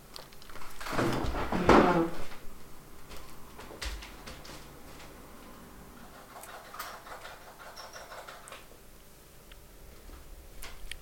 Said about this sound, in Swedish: Vänta lite jag ska bara öppna dörren.